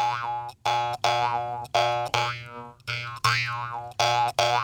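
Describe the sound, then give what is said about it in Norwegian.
A jaw harp twangs in a steady rhythm of repeated plucks, each note buzzing over a constant low drone with a wah-like sweep from the player's mouth, fairly loud with no talking. “som slår meg, er at neseborene dine blir akkurat like store når du spiller munnharpe som når du spiller sånn egg.”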